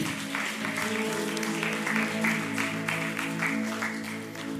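A crowd claps loudly and steadily for several seconds, a dense wash of hand claps with no breaks, while sustained musical tones hum underneath.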